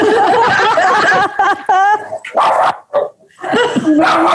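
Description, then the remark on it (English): A dog barks excitedly at someone at the door in a rapid, loud burst of yips and barks, with a voice talking over parts of it. “The dog's going really mad.”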